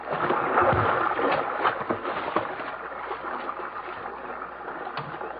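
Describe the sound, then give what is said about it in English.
A rowboat moves through river water, with steady sloshing and splashing and a few sharper strokes breaking through, continuous and fairly loud throughout, with no voices. “Here, into the boat. Up front. Quickly, before the thing of stopping us.”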